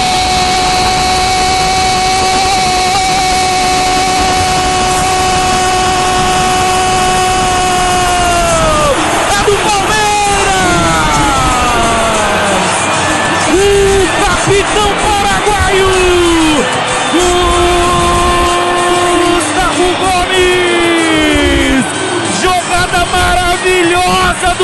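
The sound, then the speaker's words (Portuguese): A loud stadium crowd roars and cheers without letup after a goal in a football match, while long, sustained horn-like tones ring over the din and repeatedly slide downward in pitch. “A torcida canta, vibra, meu coração se alegra.”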